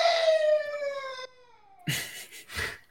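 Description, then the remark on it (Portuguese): A dog howls in a bedroom, one drawn-out wail that slides down in pitch and trails off, followed by two short, rough bursts of sound. No one speaks. “Tem um cachorro berrando aqui no meu quarto.”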